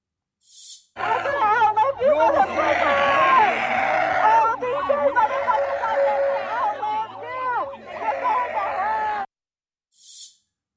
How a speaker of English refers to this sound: As time went on, however, the counter protesters they didn't bother to articulate words anymore. Instead, they just started screeching like brain damaged lizards. Listen.